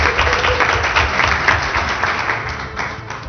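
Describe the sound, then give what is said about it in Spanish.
Steady audience applause for the Micado advertisement fills the whole few seconds, a dense wash of many hands clapping at an even loudness, tapering slightly at the end. “Un aplauso a Micado, por favor.”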